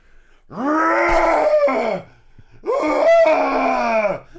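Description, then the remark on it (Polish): A voice imitates a bear growling, presented as an on-the-floor analyst who is a bear in a tie, with two long, loud, rough groans separated by a brief pause, each starting low, holding steady, then sagging in pitch as it fades. “jest to niedźwiedź z krawatem.”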